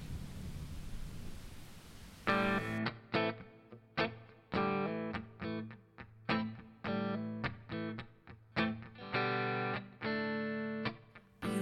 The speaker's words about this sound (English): you're listening to one of my songs on the Blues and the Blood Show.